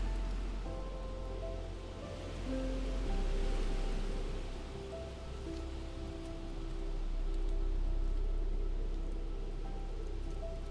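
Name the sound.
storm with rain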